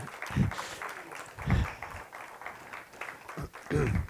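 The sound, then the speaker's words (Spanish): An audience at a church service applauds for Christ before prayer in a steady, dense wash of clapping, with several louder bursts of voices calling out over it. “Dele un aplauso a Cristo y vamos a orar.”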